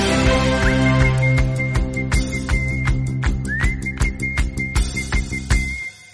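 A whistled single-note song stays on one high held note, sliding into it now and then, over steady band music with regular percussive hits; the music cuts off abruptly at the end.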